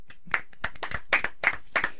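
A brief round of applause from a small group welcoming a special guest, with uneven hand claps overlapping for about two seconds at moderate loudness.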